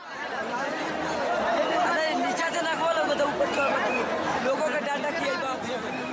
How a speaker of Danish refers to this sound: Der er i hvert fald øh, hektisk. Der er rigtig mange mennesker. Jeg tror også, jeg synes, jeg lige kunne høre noget med en, en, et, et mue i baggrunden. Mm, en fløjte og noget.